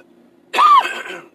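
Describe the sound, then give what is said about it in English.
A single harsh cough that breaks into a rough throat-clearing rasp, loud and abrupt after a moment of quiet with a faint low hum underneath. “Cough button, cough button.”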